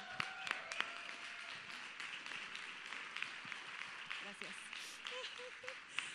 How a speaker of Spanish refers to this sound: Los dos últimos ya se nos van de su servicio social, así que démosle un fuerte, fuerte aplauso.